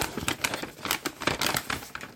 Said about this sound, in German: Jetzt packen wir es zusammen an. Also, wir öffnen zuerst einmal zusammen hier diese Tüte.